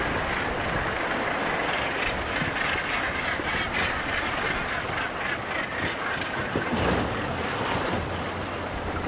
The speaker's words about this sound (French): vous avez coupé le moteur du Zodiac. Et euh, bon, il y a la houle qui nous fait un peu euh, bouger.